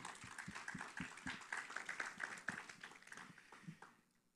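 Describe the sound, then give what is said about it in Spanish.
An audience at a sermon breaks into a dense burst of applause when the preacher calls for it, many hands clapping together for about four seconds before quickly fading out, with a faint sustained cheer or whoop riding over it. “Un fuerte aplauso a eso.”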